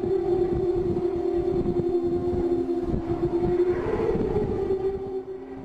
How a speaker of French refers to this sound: fait d'une multitude de tubes d'acier dans lesquels l'air s'engouffre pour le faire sonner